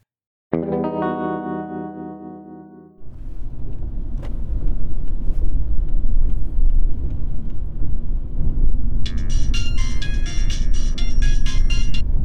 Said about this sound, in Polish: Tak, właśnie, przez bramę wjeżdżam.